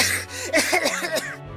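A voice imitates a choking fit: several quick, rasping coughs in an irregular burst, moderately loud and strained, trailing off after about a second, as the story character Berio chokes on grass dust stirred up after crashing into a bird's nest.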